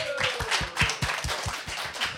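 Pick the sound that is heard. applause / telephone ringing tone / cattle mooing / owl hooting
applause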